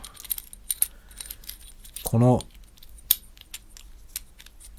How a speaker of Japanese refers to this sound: これは何だっけあの、あれですね、あの、DJI の RS3 っていうジンバルの部品、金属のジンバルの部品を今、持手に持っています。で、カチャカチャやってるけど